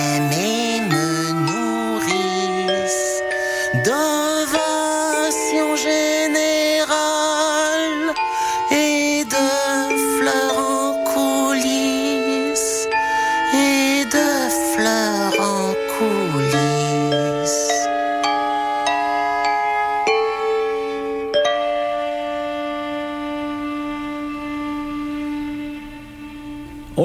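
A song plays steadily throughout, with a gliding, vibrato-rich melodic voice over sustained instrumental chords, settling into a long held chord that softens near the end.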